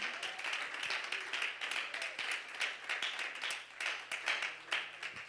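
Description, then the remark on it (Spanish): A crowd claps for God steadily for several seconds, a dense, continuous patter of many hands with no voices standing out, holding an even level throughout. “Alguien lo puede aplaudir con todo su corazón.”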